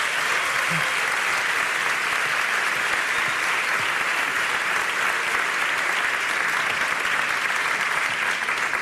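Steady audience applause fills the whole stretch, a dense, even wash of many hands clapping at a constant loud level without pauses or fading.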